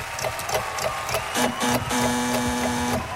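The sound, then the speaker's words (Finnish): A loud, flat electronic buzz drones for about a second and a half, stuttering briefly before holding steady, over a busy mechanical clatter, a quiz-game buzzer sounding for a wrong answer. “meni nyt sitten tähän no, tööttiin.”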